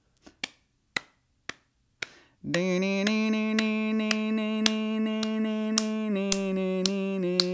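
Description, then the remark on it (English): Sharp hand claps keep a steady beat, about two per second, at first alone and then under a loud, sustained sung note, a voice imitating a guitar solo. “And now clap your hands, and I'll, I'm gonna sing the guitar solo.”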